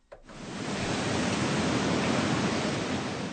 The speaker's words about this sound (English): The Pillar Creek hatchery constantly has water running as young fish swim through runways, which are long tanks that simulate a small creek.